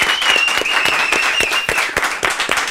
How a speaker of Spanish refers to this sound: ¡Un aplauso!